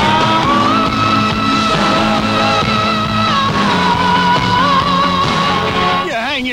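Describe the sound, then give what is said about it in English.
A feeble, wimpy siren on a Volvo police car whines steadily for several seconds, its thin pitch sagging slightly before a quick wobbling warble at the end, with no one talking. “Imagine your shock and horror when you find out the siren sounds like this.”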